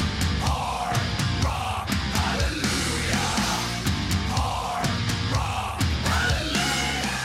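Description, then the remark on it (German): A loud, dense stretch of hard rock: heavily distorted guitars and pounding drums with steady, regular beats, plus what sounds like a raw, shouted vocal riding over the wall of sound. “Also das waren die finnischen Maskenmonster, haben übrigens damit mal den Eurovision Song Contest gewonnen”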